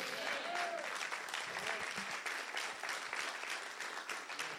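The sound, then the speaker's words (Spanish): A crowd claps steadily in applause to Jesus, a dense, continuous wash of applause with faint voices calling out underneath, holding its level throughout. “Vamos a dar un aplauso más fuerte a Jesús.”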